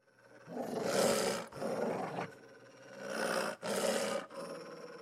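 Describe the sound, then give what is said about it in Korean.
A large dog growls and snarls in a series of long, rough, rasping bursts, loud, with short pauses between them and no talking. “큰 개가 으르렁거려도 안 보이는 척 그 앞을 무심히 그냥 걸어가는 겁니다.”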